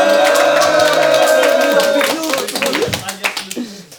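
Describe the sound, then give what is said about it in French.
A game show audience claps and cheers for the two competing teams: dense, loud applause with voices calling out, settling into scattered, uneven claps toward the end. “On fait du bruit pour les deux équipes.”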